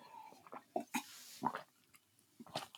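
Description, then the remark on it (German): Quiet wet mouth sounds of someone sipping water and swallowing, a few short slurps and gulps spaced irregularly, with no talking. “Gut, dass ich mein Wasser da habe.”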